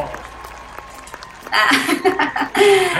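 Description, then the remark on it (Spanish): After a quiet moment, a burst of clapping and cheerful noise begins, loud and dense, briefly dipping before swelling again, with some laughter mixed in, welcoming a guest, the president of the Fundación Camibec, on a show. “Ella es presidenta de la Fundación Camibec. ¡Aplausos!”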